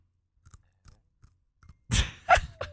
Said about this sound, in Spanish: Solo me metí un pedacito el churro. Mm, vaya.